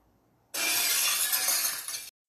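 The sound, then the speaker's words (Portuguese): A vase is knocked over and smashes at night in the dark, glass shattering in one loud, bright crash that rattles and tinkles on for over a second before cutting off, with no voices around it. “Quebrei o vaso favorito da tia Ana.”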